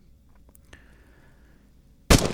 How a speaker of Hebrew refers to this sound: היא שומעת ירייה ואבא שלה נופל לבור, ועוד ירייה ואחותה נופלת לבור